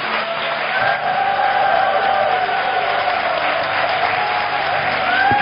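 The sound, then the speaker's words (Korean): An Onnuri Church audience in Suwon claps to welcome Pastor Lee Jae-hoon as he comes to preach, steady dense applause filling the whole few seconds at an even, strong level, with no voices speaking over it. “우리 뜨거운 사랑과 또 축복의 박수로 환영하도록 하겠습니다.”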